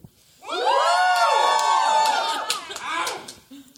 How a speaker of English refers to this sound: Okay, if you're pretty excited about how wonderfully um, we our work is affecting the next generation, I want you to holler and scream.